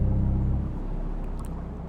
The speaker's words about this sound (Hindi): सनी ये कहता हुआ वापस स्कूटर स्टार्ट करने लगा